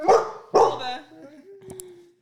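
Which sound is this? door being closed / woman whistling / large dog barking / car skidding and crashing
large dog barking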